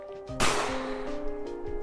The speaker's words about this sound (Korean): 난데없이 총성이 울렸죠.